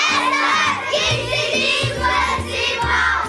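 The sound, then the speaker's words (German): A third and fourth grade primary school class shouting together, a loud, dense wash of excited children's voices, with steady rhythmic pulses underneath throughout. “Aber die Klasse, die du da hörst, das ist nicht einfach nur eine dritte und vierte Primarklasse.”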